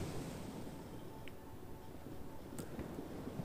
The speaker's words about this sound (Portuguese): Vamos pra praia. Vamos ver o mar. Vamos deixar a mar tocar o mar. Ouvir as ondas, catar umas conchinhas.